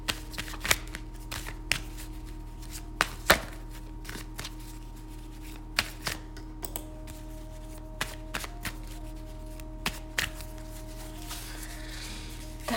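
Tarot cards being shuffled during a partner reading while the reader looks at photos: a series of crisp, papery snaps and slides at irregular intervals, moderately quiet, over a steady low electrical hum, with no one speaking.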